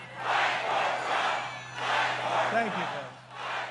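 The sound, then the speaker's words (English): A large, sympathetic crowd in front of President Trump at a rally shouts and roars in loud, swelling waves, rising and falling in a chant-like rhythm, with a steady low electrical hum beneath the din. “He was in front of a sympathetic crowd that even shouted down David Perdue and encouraged Doug Collins to primary Kemp in 2022.”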